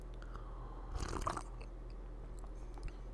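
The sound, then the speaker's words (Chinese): A short sip and swallow of water, a brief wet gulping burst with a soft mouth click, followed by faint lip smacks over a low steady hum. No one speaks. “我继续讲下去之前，吊下胃口，喝个水。”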